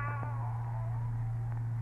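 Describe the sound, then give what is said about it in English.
A single drawn-out cat meow, its tone sliding slowly downward over nearly two seconds, heard fairly clearly over a steady low hum with no one talking. “Your cat, eh? Well, what was that I just uh, heard?”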